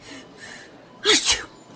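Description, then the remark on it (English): A woman at a shop checkout gives a single sharp sneeze, a quick breathy intake followed by a loud explosive release, with faint hissy breaths before it and quiet afterward. “She stood there waiting for the standard reaction everyone has to hearing a sneeze.”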